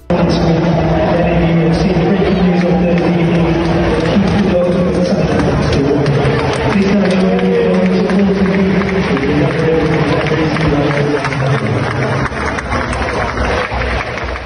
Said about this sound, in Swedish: Men eh, Keith är inte vem som helst, utan det är en anka Eh, så hela DW Stadium stod upp, stod upp och applåderade eh, Ankan Keith i 15 sekunder och det lät så här.